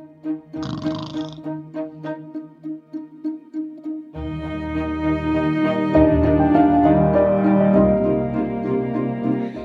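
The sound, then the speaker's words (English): Soft, calming instrumental music composed for horses, with its pitch, tone and frequency chosen for a horse's listening needs: a few gentle plucked, ticking pulses give way to warm sustained tones that swell into a full, steady wash of sound. No voices. “So let's see if this is the kind of music your horse would like.”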